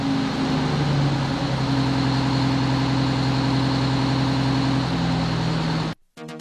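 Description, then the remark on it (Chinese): A car engine runs steadily with a low, droning hum and rumble for about six seconds as the car keeps driving forward, then cuts off abruptly before a brief burst of sound at the very end. “甘伯伯接着往前开”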